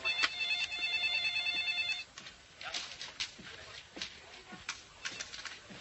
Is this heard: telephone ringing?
yes